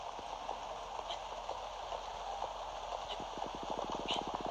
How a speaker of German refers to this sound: Oh nein, es regnet.